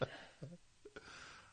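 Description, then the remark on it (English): A quiet sneeze made of a few short, abrupt bursts: a sharp intake and voiced catch, then a brief breathy burst, with no talking. “Bless you.”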